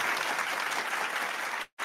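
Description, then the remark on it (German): Steady, dense applause from a group welcoming a guest, a broad wash of many hands clapping at even loudness, cutting off abruptly near the end before a brief return. “Verdienter Applaus.”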